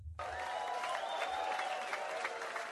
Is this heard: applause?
yes